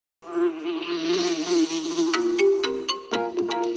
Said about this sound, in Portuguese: vou passar aqui o áudio da mosca.